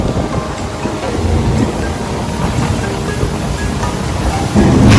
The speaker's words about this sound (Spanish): Vean la corriente, vamos contra corriente porque trae un cauce grande este río. ¡Ay! Porque te jala obvio para las cascadas.